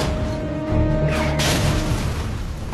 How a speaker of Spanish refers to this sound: Un destructor de tanques estadounidense comandado por el teniente Leonard Livo llega al bosque para proteger a los defensores estadounidenses. El teniente Livo dirige el cañón de 7 centímetros y con un disparo certero